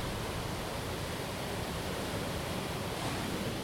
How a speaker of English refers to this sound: Hold on, I'm going to open the door so you hear how loud the ocean is. Again, not sound effects. This is how loud the ocean is from where we are.